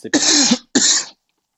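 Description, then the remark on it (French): A person coughs twice in quick succession, two harsh, raspy bursts, followed by silence. “du coup, je tousse aussi.”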